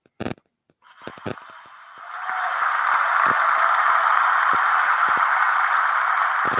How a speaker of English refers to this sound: How about that? A round of applause for reaching 53.